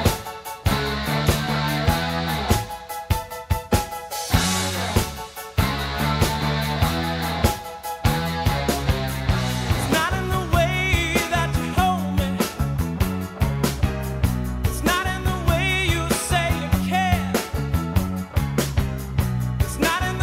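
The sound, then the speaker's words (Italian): A loud, full-band rock song plays steadily throughout, with punchy drum hits, driving bass and sustained guitar and vocal lines filling the mix, with no talking over it. “Si chiama … e questi sono … con … alla voce.”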